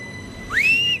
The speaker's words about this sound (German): Der Bahnhof der Stadt Chur im Ostschweizer Kanton Graubünden. Auf einem der Schmalspurgleise der Station fährt ein knallroter Zug der Rätischen Bahn ein, der Bernina Express.